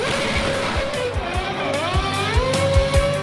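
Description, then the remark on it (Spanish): A Formula One race car engine, driver Checo Pérez's car at the Mexican Grand Prix, drones loudly and continuously, its pitch sliding up and down as it revs, with dull low thuds recurring underneath throughout. “Y el piloto Checo Pérez le da una sorpresa al público mexicano antes de correr con su auto en el Gran Premio de México.”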